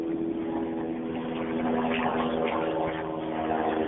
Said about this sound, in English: That's a plane, y'all. And that's a really low flying plane. Now, have you noticed that too? How the planes are flying lower?